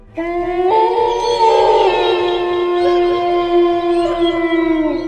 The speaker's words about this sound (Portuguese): O tempo parecia estar se abrindo, permitindo que a lua mostrasse toda a sua beleza, clareando a noite, e enquanto caminhavam subindo os degraus, os personagens ouviram uivos vindo da floresta.